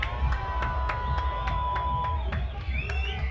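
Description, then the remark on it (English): A large outdoor crowd at Ground Zero Festival, Costa del Schranz, roars and screams for a DJ, dense and loud, with screams rising above a thumping bass beat and sharp rhythmic transients pulsing through the noise. “One more time, please let me hear you scream for …!”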